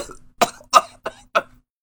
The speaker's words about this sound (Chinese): 他猛烈的咳嗽起来，眼耳口鼻全渗出了鲜血。